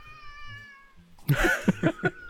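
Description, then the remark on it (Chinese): A child nearby cries loudly in several high-pitched, wavering wails that swell and break into short sobbing bursts, following a second of faint steady whining tones. “稍等一下，旁边有小朋友在哭，”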